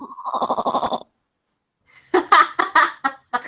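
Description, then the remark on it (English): A person imitates a goat's bleat with a single wavering, pulsing cry lasting about a second. After a short silence, loud bursts of laughter follow. “Wait, I can make my goat noise.”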